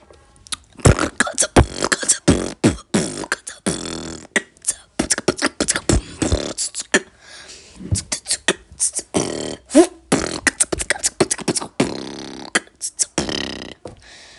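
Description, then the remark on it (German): Vocal beatboxing: a fast, irregular stream of sharp percussive bursts, clicks and breathy hisses with occasional low throaty thumps, performed by mouth without any spoken words. “Ich kann verschiedene Sachen Beatboxen.”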